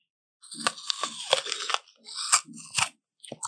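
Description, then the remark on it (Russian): Crisp crunching as someone bites into an apple, with a burst of wet chewing crunches following in quick irregular bursts, then a couple of fainter bites at the end. “Яблоко.”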